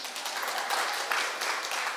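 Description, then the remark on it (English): A church audience applauds steadily after the announcement that the senior pastor is completing 25 years at the church. A dense wash of many hands clapping at once holds an even, moderate loudness throughout, with no speech over it. “I'm not sure if applause is the appropriate response, but yeah.”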